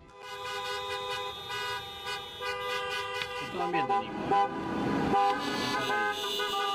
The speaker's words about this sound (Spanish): Corresponde a los bocinazos, y por suerte no hubo disparos ni tiros, registrados en el centro de Michigan cuando manifestantes se presentaron frente al Palacio de Gobierno para protestar contra la excesiva cuarentena